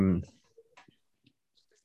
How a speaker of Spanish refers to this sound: Ya, pues, ya hice clic.